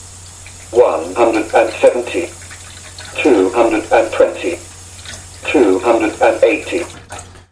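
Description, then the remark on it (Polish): Water runs steadily from a slowly opened tap into a measuring jug in a sink at a low, even level, while a voice speaks in three short bursts over the flow, announcing the amount of water in the jug in millilitres. “W tym momencie pomalutku odkręcam nasz kran.”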